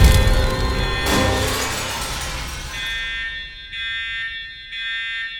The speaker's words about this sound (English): What's that? Fire drill. Everybody move calmly to the exits.